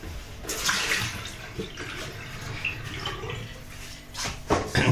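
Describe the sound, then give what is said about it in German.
Water pours steadily from a coffee machine's water tank as it is emptied into a basin, a continuous splashing gush with bubbly, uneven surges and a brighter spatter near the end; no voices are heard. “Das Wasser ausleeren.”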